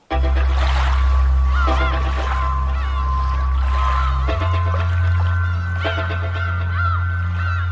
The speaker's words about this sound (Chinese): 然后我选这首歌，只是因为一开始的那个声音是有水声，然后我很喜欢那个水的声音。